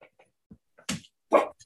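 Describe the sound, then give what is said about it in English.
A dog gives two short, sharp barks, with a few soft whines and small yips scattered around them and no talking. “Yeah, they were about to bark.”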